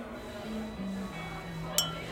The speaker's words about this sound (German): Dein Glas stößt mit einem Klirren gegen meins. Auf uns. Ja, auf uns.